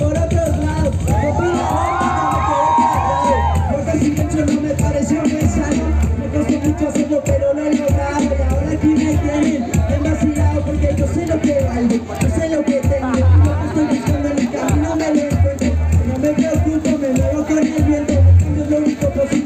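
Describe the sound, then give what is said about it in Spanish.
A large, dense crowd at a trans rights march cheers and shouts continuously, with whoops and high-pitched voices rising over a steady roar of babble, loud throughout. “Estamos escuchando a una nota perdida, presente en Yo Marcho Trans.”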